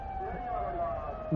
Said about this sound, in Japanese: パトカーが怖いね。暴走車両がおるよ、この辺に今。ずっと止まってください言うてるよ。追っかけて。全然止まってないよ。